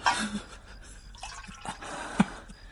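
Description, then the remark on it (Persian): Water is poured in short splashes and trickles, with a few drips and one sharper slosh near the end, for someone to drink; nobody speaks. “بیا بیا کمی آب بخور”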